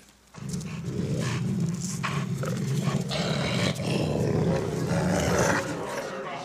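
A wolf growls in a deep, continuous rumble, loud, snarling steadily for several seconds without pause; no one speaks.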